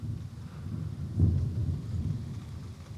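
A deep, rolling thunder rumble fills the whole stretch, swelling briefly louder about a third of the way in before settling back to a steady low growl, with no voices present.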